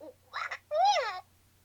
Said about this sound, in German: Ist ungefähr handgroß, ein Plüschtier, sieht aus wie eine Eule, ist original ein Furby, nur in, in neu. Soll eine Katze sein, tatsächlich.